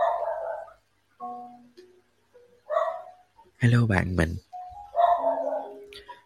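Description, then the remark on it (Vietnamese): A dog barks in a short, loud cluster of sharp yelps, with a person speaking briefly before and after. “sorry vì tiếng chó sủa”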